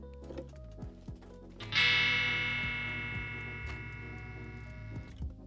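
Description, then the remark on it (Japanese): An electric guitar with freshly changed strings plays a few short, muted plucks, then strikes one bright, loud chord that rings out and slowly fades, with light clicking picks underneath. “弦の交換ってすごいね。音が変わった”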